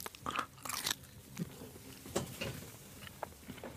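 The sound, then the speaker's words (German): Someone bites into a Sonneberger bratwurst fresh from the grill: a crisp snap of the casing followed by several soft, wet chewing crunches, with no talking. “Na, wir beißen mal rein.”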